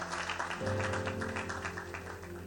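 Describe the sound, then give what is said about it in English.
An audience claps their hands to the glory of God in a dense, steady patter before taking their seats. A sustained low organ-like chord swells in underneath after the first half second, with no speech. “Why don't you clap your hands and please have your seat, glory of God.”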